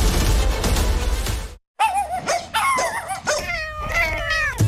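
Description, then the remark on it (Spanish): A dense, noisy burst like a dog barking fills the first second and a half, then after a brief silence a cat meows several times, loud, its drawn-out cries rising and falling. “Escuchar a tu mascota sana es música para tus oídos”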